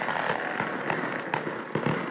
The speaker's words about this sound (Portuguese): Um grupo de cerca de 30 apoiadores de Bolsonaro lançou fogos de artifício contra o prédio do STF. A ação durou ao menos cinco minutos.